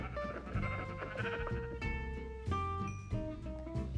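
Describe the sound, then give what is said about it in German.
Sheep bleat over and over in drawn-out, overlapping calls, loud, with a steady tonal backdrop running beneath them and no voices. “ein braunes Schaf.”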